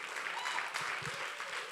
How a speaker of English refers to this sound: We clap, but then your ex comes to church. We're clapping now.